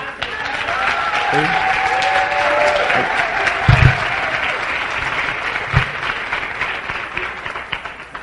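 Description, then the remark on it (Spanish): A seminar audience bursts into sustained applause for having attended, dense overlapping clapping that holds steady for several seconds, with a few brief cheers and voices mixed in. “¿Por qué no se da un aplauso por eso?”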